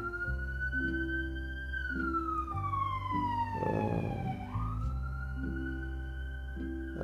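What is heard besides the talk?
ambulance siren passing outside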